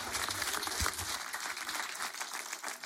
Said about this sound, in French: Applaudissements pour Corentin Grévaux, ce souvenir, Papa Houtet pendant Rising Star.